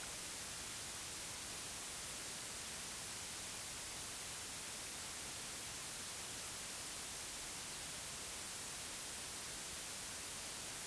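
A steady wash of white noise plays from a loudspeaker without a break, an even, bright hiss that stays soft and unchanging from start to finish, with no voices or other sounds.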